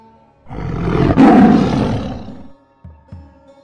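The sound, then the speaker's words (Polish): A tigress, the Champawat man-eater, gives one long, loud, rumbling roar lasting about two seconds, swelling and then fading, followed by a couple of short, low grunts. “Tygrysica z Champawat”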